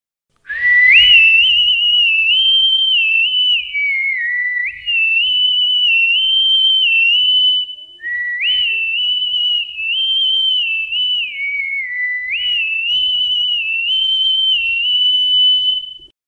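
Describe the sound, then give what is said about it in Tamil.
A person whistles a lively song melody from the film Padayappa, a clear high-pitched tune in repeating phrases with stepped rises and falls, played alone for about sixteen seconds with brief pauses between phrases. “அடுத்து தலைவர் படத்தில் இருந்த இன்னொரு சின்ன விசில் சாங் பார்க்கலாமா படையப்பா படத்தில் வர”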